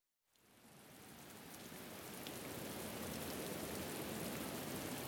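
rain falling

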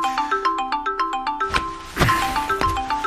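phone ringing

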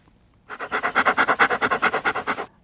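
dog panting

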